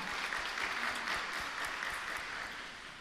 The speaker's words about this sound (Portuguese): Vamos aplaudir a palavra do Senhor. Força nessa palma.